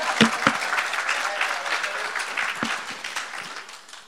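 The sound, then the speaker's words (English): A round of applause from a crowd, many hands clapping in a dense, steady patter that stays fairly loud throughout before easing slightly at the end. “Yeah, don't give him a round of applause because he's not here, eh?”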